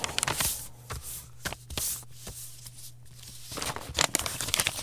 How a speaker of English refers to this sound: Zaga is folding up the letter and putting it in an envelope.